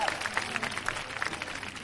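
A crowd claps steadily, a dense patter of many hands at moderate volume with no clear pauses, like an audience applauding together.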